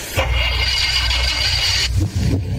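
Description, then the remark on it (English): A car engine starts up loud, settling into a heavy rumble with a harsh, hissing whine layered on top, then shifts abruptly in tone near the end as it revs. “Every time you turn the key, your engine parts wear and wear until noise appears.”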